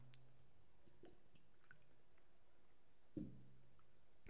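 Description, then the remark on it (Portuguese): Someone drinks water: soft liquid clicks and small wet sounds, then a single louder gulp near the end, with no talking. “Toma água, vou me hidratar.”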